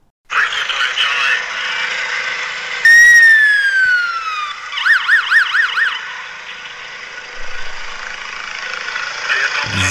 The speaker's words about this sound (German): So, jetzt hören wir ein bisschen vom Einsatz. Klingt dann so ein bisschen nach Amerika und Hollywood, Streifenwagen.